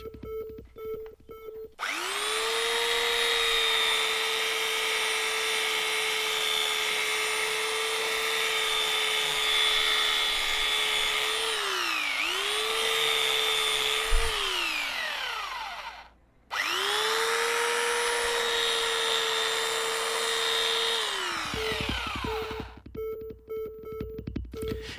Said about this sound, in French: tu es en train de terminer tes étagères murales. Là, je découpe grossièrement les, les planches et après, je vais les poncer.